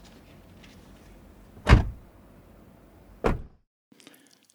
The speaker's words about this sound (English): Well, let's forget all this stuff. Let's close the doors and get going.